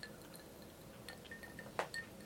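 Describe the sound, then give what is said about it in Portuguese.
A Negroni cocktail is poured into a glass, with soft trickling, small drips and a brief bright clink partway through. It is quiet, with no one talking. “Tô aqui tomando meu Negroni. Um antes, um durante, um depois.”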